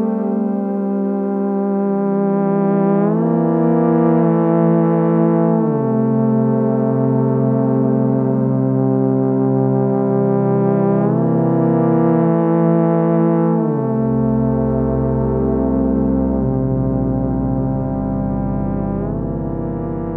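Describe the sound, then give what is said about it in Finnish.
A homemade electronic instrument, designed and built by its player, played through a few effects, holding thick, buzzy sustained tones that step slowly between pitches over a deep droning bass, loud and unbroken throughout with no voices. “soitti Ginette muutaman efektin läpi, joista kertoo sitten vähän tarkemmin, kunhan päästään tässä jaksossa eteenpäin.”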